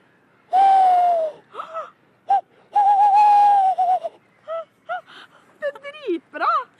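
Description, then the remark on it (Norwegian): A person imitates a tawny owl call by voice: two long, steady hoots followed by a quick series of short, wavering quavering notes. The voice is fairly loud, and nothing else is heard. “Ok, Da skal jeg prøve meg først på katteugla.”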